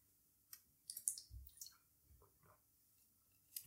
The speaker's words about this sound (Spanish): Pero antes vamos a beber agua, ahora sí, sí, sí, sí, sí.